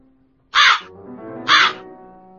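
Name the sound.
crow cawing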